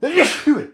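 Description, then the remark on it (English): A single sharp sneeze, quickly followed by a short spoken apology and a soft laugh. “Well, bless you.”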